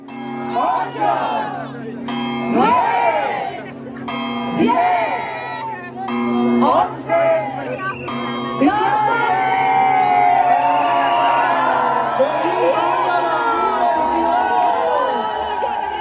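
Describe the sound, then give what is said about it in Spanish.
A crowd in the main square, inside a Christmas market in Tenerife, Canary Islands, shouts the countdown to New Year 2022 in loud, evenly spaced bursts, then erupts into sustained cheering and whooping. A steady musical hum plays underneath throughout. “La seguimos y en cinco minutos ya estábamos en la plaza principal dentro de un mercado navideño, rodeados de más personas que miraban hacia el cielo en la espera de algo. Conseguimos dos cervezas y el conteo empezó.”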